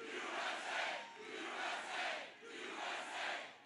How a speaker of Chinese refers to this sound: 民众大喊 USA。